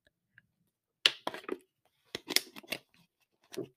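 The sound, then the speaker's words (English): Quiet sounds of a person drinking water: a few short bursts of sipping and swallowing with small clicks, in three brief clusters separated by pauses, with no talking. “Had to take some water. Mouth get dry.”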